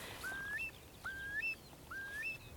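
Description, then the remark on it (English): A wading bird's doleful, plaintive whistle, three rising, slightly drawn-out cries repeated at a steady pace, fairly faint over a soft background hiss, with no voices. “But there are seven birds with a very similar doleful, plaintive cry.”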